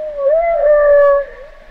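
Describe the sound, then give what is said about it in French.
A humpback whale call: one drawn-out tonal moan with rich harmonics that rises slightly, holds, then dips and fades, heard clearly on its own against a faint low rumble. “si c'est des vocalistes de baleines euh, ou si c'est, ou c'est des préenregistrements”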